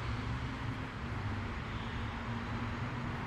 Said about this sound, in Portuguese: E esse barulho de automóveis é exatamente porque estamos chegando a Nossa Senhora do Carmo com o Uruguai.